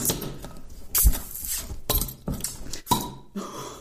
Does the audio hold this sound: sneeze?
no